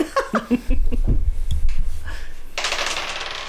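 Dice clatter and rattle across a hard floor in a quick run of clicks, fairly loud, with a brief laugh just before; the dice are rolled on the floor to see who gets a six first.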